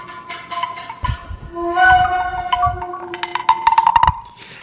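A short, punchy musical jingle: sustained bright tones over rhythmic percussive hits that build into a quick flurry of beats before ending. No one speaks.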